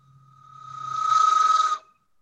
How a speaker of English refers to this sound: That's a train conductor's whistle, isn't it? It doesn't sound like one. It sounds like some kind of weird theremin made out of rulers. I feel like you could reach UFOs and aliens and things like that with that thing,